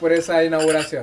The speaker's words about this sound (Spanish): Salud, ¡Uh! salud. Un brindis, Salud por,